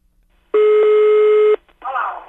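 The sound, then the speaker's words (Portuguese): A single loud, steady telephone tone sounds for about a second, like a call ringing through on the line, followed immediately by a voice beginning to speak. “Vamos ligar mais uma coisinha? Ai, liga, liga, vai, liga!”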